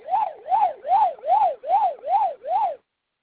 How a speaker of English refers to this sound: My husband found a plush Pac-Man and a plush Pac-Man ghost, and they make classic Pac-Man sounds.